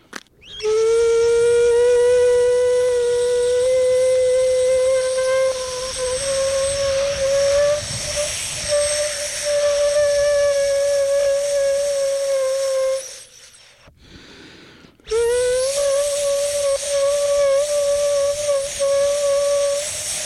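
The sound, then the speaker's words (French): An air-blown instrument with two openings covered by plastic, which swell slightly with the air pressure, sounds a loud, steady, reedy tone with a breathy hiss, held for a long stretch, then cuts off briefly and starts again, rising slightly in pitch. “les deux ouvertures qui sont bouchées par les plastiques se, se gonflent un peu avec la pression de l'air”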